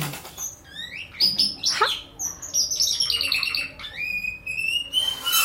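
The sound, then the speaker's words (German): A small pet bird chirps and squawks rapidly and excitedly as a girl catches it, a flurry of sharp, high tweets and agitated calls with faint rustling underneath, no voices. “Das Mädel fängt meinen Vogel ein”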